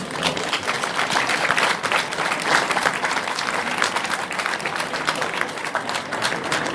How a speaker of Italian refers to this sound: Grazie, grazie, grazie, un grande applauso.